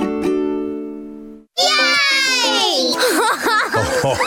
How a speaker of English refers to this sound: They're my grandkids. Gee, they can make some noise. But you know what? It's a beautiful sound because they're alive and having fun.